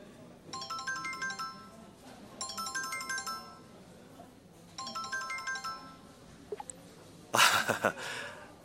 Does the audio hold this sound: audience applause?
no